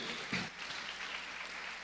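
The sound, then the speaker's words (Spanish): An audience claps for the Lord in a dense, steady wash of applause, with a brief louder burst near the start. “Dale palmas al Señor, hermano. Dáselo fuerte al Señor.”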